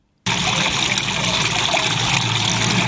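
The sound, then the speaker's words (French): A heavy, loud stream of liquid gushes without pause after a brief silence, like a mammoth urinating, steady for nearly three seconds with no voices. “Mais pipi de mammouth, c'est autre chose. Vous voyez bien, enfin, vous entendez, là, vous faites la distinction, quoi.”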